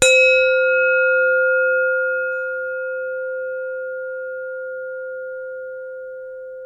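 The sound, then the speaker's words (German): A single gong struck once, its clear metallic tone ringing out and slowly fading for several seconds, alone and fairly loud with no voices. “für dich einen Gong geholt. Und ich wollte jetzt einfach mal die 20. Folge eingongen.”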